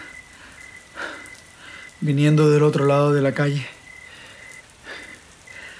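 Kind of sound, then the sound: nature, rain falling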